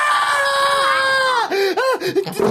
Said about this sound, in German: Musst du so schreien?